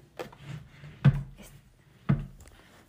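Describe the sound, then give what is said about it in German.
A drawer that sits crooked is worked open and shut, with three dull wooden knocks roughly a second apart and faint scraping between them, with no one talking. “diese eine Schublade ist irgendwie schräg. Merke ich gerade.”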